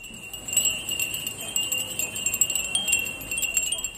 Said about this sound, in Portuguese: Esse som que você está ouvindo é dos furim. Os furim são sinos que a gente chama no Brasil de mensageiros dos ventos. Ou seja, são sinos, aqui nesse caso, feitos de vidro, que conforme o vento vai batendo, ele vai fazendo um som maravilhoso.